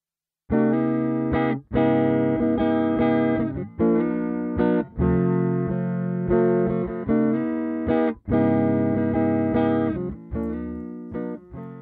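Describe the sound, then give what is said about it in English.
An electric guitar with a single-coil pickup played through an Electro-Harmonix Soul Food overdrive pedal set as a clean boost into a Fender-style amp, ringing out bright, full chords with a little grit in rhythmic bursts with brief pauses between phrases. No voices are heard. “So what you just heard there was the Electroharmonic Soul Food playing in a clean boost configuration.”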